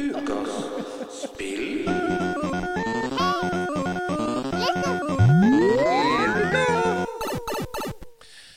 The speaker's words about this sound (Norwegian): Nei, vi må ha ukens spill-jingle.